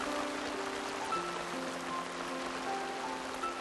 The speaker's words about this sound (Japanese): そしていきなり激しい雨が降ってきた